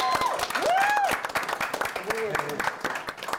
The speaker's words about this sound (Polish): Wielkie brawa!